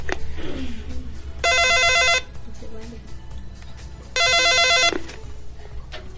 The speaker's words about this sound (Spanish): Bueno. No cuelguen. Última llamada, si es que suena nuevamente el teléfono